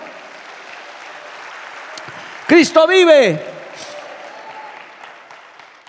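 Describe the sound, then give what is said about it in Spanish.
An audience applauds for the Lord in a steady, dense wash of clapping throughout, while a man's voice briefly shouts out over it partway through before the clapping continues on its own. “Dale un aplauso al Señor, a su nombre, gloria.”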